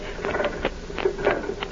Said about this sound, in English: Yes, by George, I think I know what that sound is. What? A printing press. A printing press out here on the boat? I'm sure it is. It seems to be coming from below decks.